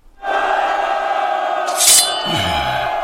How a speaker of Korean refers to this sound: 의주, 서경, 밤과 낮을 가릴 것 없이 태조 대왕이 가는 곳은 백성이 있었다. 그들은 도열의 손뼉을 쳤고 목이 쉬어라 환호를 질렀다.